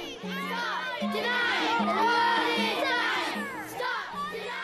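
A large crowd of many voices shouts and chants together outdoors at a big global march in Winnipeg in September, a dense, continuous roar with overlapping cries that stays loud throughout the few seconds.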